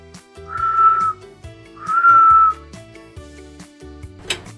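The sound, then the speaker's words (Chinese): Someone practising whistling at bedtime because they cannot sleep: two sustained, fairly high whistled notes, each lasting about half a second, rise clearly above soft background music. No one speaks. “哦，阿奇，睡觉的时间你怎么在吹口哨？”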